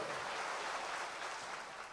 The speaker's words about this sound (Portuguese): Vamos aplaudir ao Senhor, agradecendo por eles. Deus abençoe.